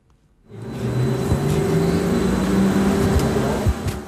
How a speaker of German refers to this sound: war auf so einer Testfahrt mit einem grossen weiß-blauen Doppelgelenkbus mit dabei